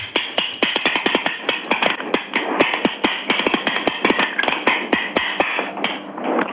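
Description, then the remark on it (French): Two soup spoons played as percussion, clacking in a rapid, steady rhythm of sharp clicks that keeps going for several seconds, fairly loud, with no talking over it. “Ah j'ai deux cuillères à soupe là.”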